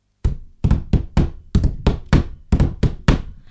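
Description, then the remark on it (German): Hands drum on a desk in a loose rhythm, played by someone after showering: about eleven dull thumping knocks in quick groups, clear and fairly loud, with no voices. “Hat er sich gedacht, trommelt er noch ein bisschen dazu im Rhythmus auf dem Schreibtisch rum nach dem Duschen.”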